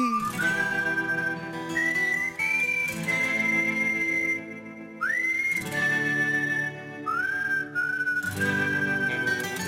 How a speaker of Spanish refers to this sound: Oye, ¿te suenan de algo estos silbidos que estás ahora escuchando?